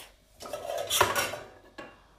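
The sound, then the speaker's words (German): A metal cooking pot, needed for a water bath to melt dark chocolate, is pulled out and set down, clanking and rattling against other cookware for about a second, followed by one sharper knock. No talking. “Ähm, genau, und jetzt ähm, brauchen wir einen Topf”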